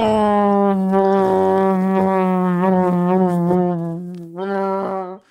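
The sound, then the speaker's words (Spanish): A voice imitates a small propeller plane with a steady, buzzing drone held for several seconds, wavering slightly in pitch, breaking briefly, then resuming for one more short burst. “una avioneta, Choco, primera vez del vato piloteando en su avioneta Y Iba en Madrid a la avioneta Choco y era su primera vez volando”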